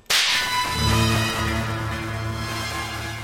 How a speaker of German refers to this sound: Elias schaltete seine Leselampe an und die Schnelldenkkappe, die daran baumelte, explodierte.